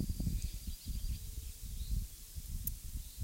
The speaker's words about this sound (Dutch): En de grote plakaten kikkendril die ze aan het bewaken waren. Die trillende brom van de kikker, bruine kikker in dit geval